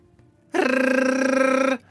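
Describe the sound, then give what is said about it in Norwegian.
A small alarm box set outside a door blares a loud, harsh alarm bell for just over a second in one steady, buzzing burst with a fast rattling ripple, then cuts off abruptly. No one speaks. “fra alarmboksen, og gulvet under dere forsvinner.”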